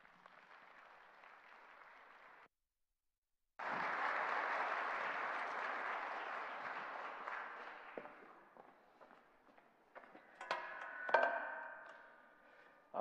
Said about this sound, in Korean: 오늘 메시아닉 시크릿이라는 제목으로 우리에게 말씀 주실 텐데 큰 박수로 우리 성교사님 환영하겠습니다.